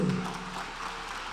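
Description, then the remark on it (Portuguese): A church audience applauds the Lord in a steady, dense wash of clapping at an even level throughout the brief moment, with no voices standing out. “E aplauda o Senhor por isso.”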